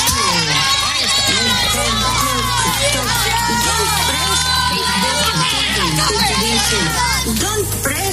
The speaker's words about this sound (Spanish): Hola gente que estáis trabajando, gente que estáis sacando adelante este país llamado España y que habéis venido a servir y no ha servido. Este aplauso va por vosotros.